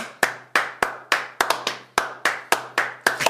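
A steady run of sharp hand claps by people trying to keep in rhythm with each other, about a dozen over a few seconds, keeping a loose rhythm, with the occasional quick double clap; loud and crisp with a low constant hum beneath and no talking.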